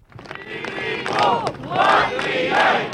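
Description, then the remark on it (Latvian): A large crowd at an all-Latvia mass demonstration for an independent Latvia, on the bank of the Daugava River near Riga, shouts together in loud, sustained waves, many voices rising into three swelling roars over a constant background din, with no single speaker standing out. “Bet plašākais tautas gribas apliecinājums vakar atkal mūsu likteņu upes Daugavas krastā kur notika grandioza Vislatvijas tautas manifestācija par neatkarīgu Latviju.”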